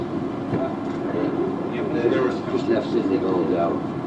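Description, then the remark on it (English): A train rumbles past through the Merrion Gates level crossing with the barriers down, a steady, loud rolling roar with faint metallic squeals on top, and a voice murmuring beneath the noise. “So we'll see a train going through.”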